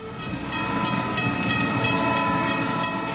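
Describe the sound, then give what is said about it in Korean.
A train travelling about an hour from Brussels station to Bruges, Belgium, rolls steadily along the rails, its loud continuous rumble broken by a regular, quick clickety-clack rhythm from the wheels, with no voices. “브레셜역에서 기차를 타고 1시간쯤 가면 불의해에 닿을 수 있어요.”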